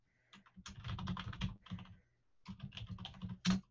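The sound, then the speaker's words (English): Rapid tapping of someone typing a message on a phone, in two busy bursts separated by a short pause and ending with a slightly louder tap. No one speaks. “Wait, I'll message you on my phone.”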